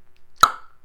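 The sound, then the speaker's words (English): A single sharp crack as the Hernando de Soto Bridge snaps into a new clean break, a loud sudden report with a brief ringing tail that fades quickly, heard on its own without any voices. “That's the sound of the Hernando de Soto Bridge getting older and developing a new clean break.”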